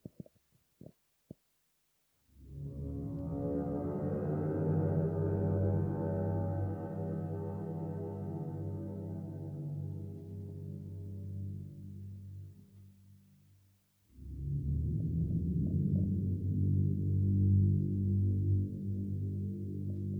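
Brooding orchestral film music built on deep, sustained drones, swelling into a long dense chord, dipping briefly, then returning as a lower, darker held tone. A few faint clicks precede it; no voices.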